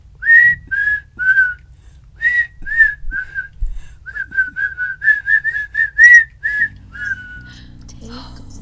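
A recorder plays a simple, steady tune of short, bright notes in an even rhythm, clear over faint background noise, ending with a brief held note and some other sound.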